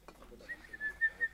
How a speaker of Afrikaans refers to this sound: Is is dit iemand wat fluit? Ja. Dis 'n belangrike boodskap.